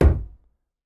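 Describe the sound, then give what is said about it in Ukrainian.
A cup is set down on a table with a single dull, low thunk that fades quickly, clear with nothing else around it. “Як звучить без костера ставлення чашки? Як звучить з костером ставлення чашки?”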